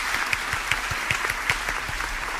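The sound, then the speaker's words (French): Steady applause from a group, a dense patter of many hands clapping with a few sharper, louder claps popping out of the wash, continuing evenly throughout without any voices. “Des, des applaudissements, là.”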